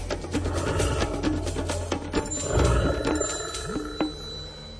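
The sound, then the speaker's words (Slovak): A brown bear growls in deep, rumbling bursts, the rough low snarls rising and falling over a few seconds with no one speaking. “Keďže na Slovensku žije odhadom 600 až 800 jedincov medveďa hnedého, stretnutie s týmto kráľom lesa nemusí byť v pohoriach stredného, severného a východného Slovenska ničím výnimočným.”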